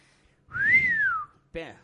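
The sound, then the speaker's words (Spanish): A single loud blast from a toy whistle (chiflador) in a studio, lasting under a second, its pitch gliding up and then sliding back down, followed right after by a short burst of a voice. “Ah, el sonido era de un chiflador de estos, un bailador.”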